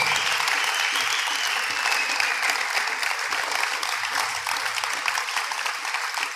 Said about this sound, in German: Ähm, wir geben doch unserem Food-Team mal ganz einen großen Applaus. Danke euch viel, viel mal.